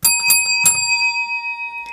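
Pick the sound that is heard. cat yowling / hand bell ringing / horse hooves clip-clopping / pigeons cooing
hand bell ringing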